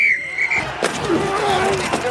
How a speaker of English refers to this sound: That's the sound of all the sports you love, all at once.